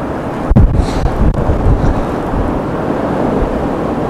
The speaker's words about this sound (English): Oh, but the wind is moving the water too much.